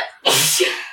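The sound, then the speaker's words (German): A single loud sneeze bursts out suddenly after a brief quiet moment, with a sharp onset and a breathy, hissing tail. “Gesundheit.”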